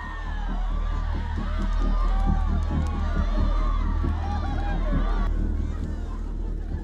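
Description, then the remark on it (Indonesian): Spectators at a buffalo fight (Pasilaga Tedong) in an arena during a Rambu Solo ceremony cheer and shout continuously, with many overlapping voices rising and falling in excited whoops over a steady low rumble, loud throughout. “Sorakan penonton semakin kencang.”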